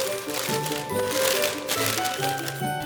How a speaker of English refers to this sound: I've already lined the tin with butter, and now I'm going to line it with brown paper. For the edges, I'm using double thickness of paper. I've cut tabs at the bottom to make it sit in the tin more evenly.